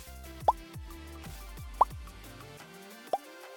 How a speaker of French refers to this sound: Ouais, moi aussi j'aime bien le son des bulles qui éclatent.